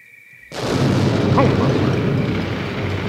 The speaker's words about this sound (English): Holy cow! There's been an explosion in the cornfield!